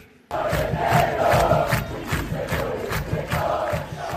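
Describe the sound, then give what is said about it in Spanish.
A loud crowd of fans of the Uruguayan football club Liverpool chants and roars, celebrating the team's Torneo Clausura title, with rhythmic bursts of voices and clapping pulsing steadily, sustained throughout after a brief quiet start. “Y estos que oyen son los aficionados de Liverpool, pero no de la Premier League, sino de Uruguay, festejando un nuevo título.”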